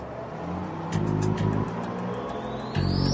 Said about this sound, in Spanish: El pastor Weiss se sentó mientras el autobús comenzaba a andar.